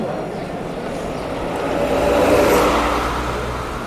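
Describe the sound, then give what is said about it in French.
Steady road traffic rumbles as a cyclist rides with the cars on a road near Orléans, France, with no cycle lane or road markings; a car swells louder as it passes midway before easing off again, wind and tyre noise filling the background. “Alors, on est d'Orléans, plus de pistes cyclables on roule avec les voitures sans démarcation au sol.”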